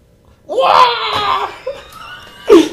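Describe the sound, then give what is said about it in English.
A person vocally imitates the Wilhelm scream: a loud, strained wail rising from silence for about a second, then trailing off into a short laugh and another burst of voice. “Basically, as he's pelting them with stones, the Wilhelm scream.”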